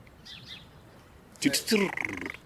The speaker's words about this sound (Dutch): Dat is even zo'n alarmrateltje. Dat is ook heel typisch Merel.